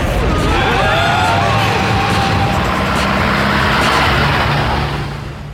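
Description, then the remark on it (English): A taxi cab's engine revs hard as the car speeds along, a loud, continuous roar with road rumble that holds steady for several seconds before easing off at the end. “Take a left here, cabby. No entry, mate. Commit a traffic offence or get blown up.”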